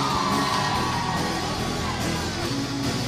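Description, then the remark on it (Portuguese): The studio audience of the TV Cultura show Matéria-Prima, hosted by Rafael Cortez in the station's studio C, cheers and whoops loudly, a dense, sustained wash of many voices yelling together without a break for the whole few seconds. “Estou aqui muito bem acompanhado da plateia!”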